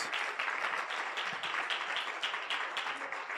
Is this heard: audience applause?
yes